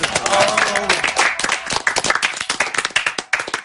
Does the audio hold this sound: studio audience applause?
yes